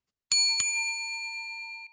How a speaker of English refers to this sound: Well, that was the double bell. That means our shift's coming to an end, and we're going to have to lock the lobby doors.